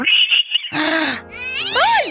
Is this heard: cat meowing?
yes